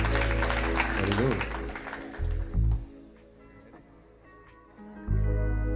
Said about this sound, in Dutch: Mag een heel groot applaus